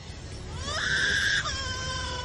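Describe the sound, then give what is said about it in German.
An Australian superb lyrebird mimics a crying baby: a wailing, harmonic tone that rises, holds loud for about a second, then drops into a softer sustained whine. It's clear, with no talking. “Das ist der Vogel-Leierschwanz, der australische Leierschwanz. Der macht ein Baby nach.”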